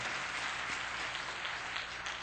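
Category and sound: crowd, audience clapping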